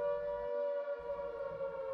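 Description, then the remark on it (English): A civil defence air raid siren sounds a steady, loud wailing tone that holds without a break for the whole two seconds, with no voices over it. “No point in waiting till the siren starts.”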